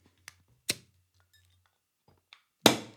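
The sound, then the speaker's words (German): Short glassy clicks and clinks of a green Karlsberg beer bottle being handled and opened, ending in a sharp cap pop followed by a brief fizzing hiss. No one speaks. “Gar nicht so viele Worte, ich denke, wir machen es auf.”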